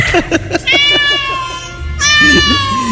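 Cats meow loudly, two long drawn-out wails sliding downward in pitch, preceded by a quick run of short, choppy mews.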